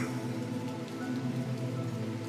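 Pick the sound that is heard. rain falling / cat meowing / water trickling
rain falling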